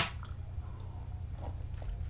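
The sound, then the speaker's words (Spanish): A few quiet slurping sips of hot coffee, the second sips of the day, short wet mouth sounds spaced apart over a steady low hum, with no one talking. “me voy a dar el segundo sorbito del día.”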